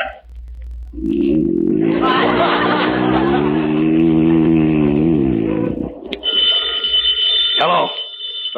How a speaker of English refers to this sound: I'll get the phone. I wonder who's calling it.